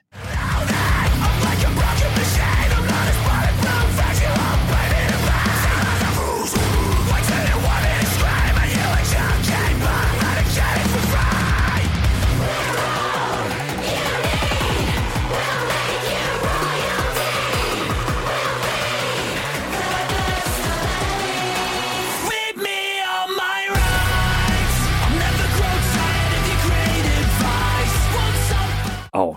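A heavy rock song plays loud and dense throughout, with distorted, grinding guitars and a pounding low end. It drops out for a brief moment near the end before crashing back in.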